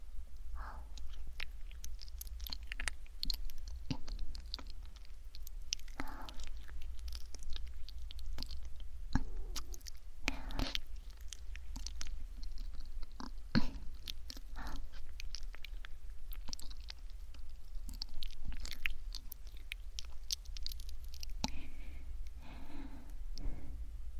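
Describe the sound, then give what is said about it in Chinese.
Soft, wet kissing sounds: irregular smacks and lip clicks repeat for the whole stretch over a low, steady hum, with occasional breaths and no talking. “都亲了这么久了，这下才害羞啊？”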